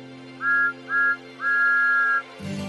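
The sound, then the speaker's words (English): Thomas the steam engine's whistle blows two short toots and then one long blast, loud, over a steady low rumble, with a brief noisy burst right at the end, during a music show on the Island of Sodor. “And my very loud whistle!”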